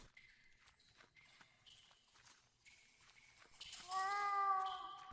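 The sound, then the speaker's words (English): Footsteps walk at a steady pace through a basement, a series of soft thuds over a faint background hum. Near the end, a loud, drawn-out tonal cry briefly rises over the steps. “We continue walking”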